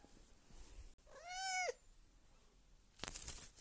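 A single drawn-out cat meow, clear, rising then falling in pitch, followed after a pause by a short burst of rustling noise; no one speaks.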